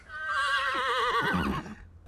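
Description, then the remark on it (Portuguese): A loud horse whinny, a shrill quavering neigh that wavers and drops in pitch over about a second and a half before breaking off, with no one talking; a film gag where horses whinny whenever the character Frau Blücher's name is spoken. “É, é, é, é uma sacada genial toda vez que fala o nome dela, os cavalos relixarem”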